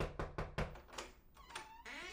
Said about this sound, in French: Et quand elle ouvre la porte de l'appartement et fait entrer les deux hommes